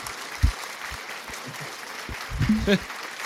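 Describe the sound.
Fans clapping in scattered, uneven bursts over a steady crowd murmur, with a few sharper claps standing out and a voice briefly rising near the end.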